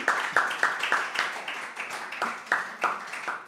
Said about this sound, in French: Bon, faisons une, autre, une dernière acclamation à notre apôtre ami ici.